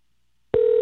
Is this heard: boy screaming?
no